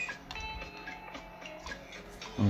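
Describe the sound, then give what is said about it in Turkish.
Rapid, uneven clacking of keys struck hard on a laptop keyboard as someone types, fairly quiet, with a low thump at the very end. “Um, ben çünkü laptopu mesela şeye bağlıyorum ve hayvan gibi klavyeye vurarak çalışıyorum yazı konusunda.”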